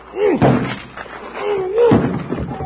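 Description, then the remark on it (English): Two heavy, booming thuds of a body slamming into a solid wooden door made of two-inch plank and barred with an iron bar on the outside, as someone tries to knock it down from inside a locked stall. The thuds are about a second and a half apart, with strained vocal grunts around each impact. “Try knocking that door down.”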